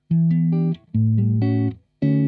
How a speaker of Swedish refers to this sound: Eh, vignetten, den, är ju, den följer ju en dur skala. Eh, det är en ackordföljd som är E-moll 7, A13, D-maj 7. Jag kan klippa in den så att ni hör det.